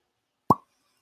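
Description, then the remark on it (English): A single hollow pop as a cork is pulled from a bottle of single malt scotch, sharp, with a brief resonant ring that fades quickly into silence. “Oh, Ooh. single malt scotch.”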